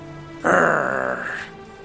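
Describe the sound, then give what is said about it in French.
A single low, gruff grunt from a man's voice, meaning yes, lasting about a second, fairly loud against a quiet background, with no other talking. “Un grognement. Ça, ça veut dire oui Et effectivement, … est d'accord.”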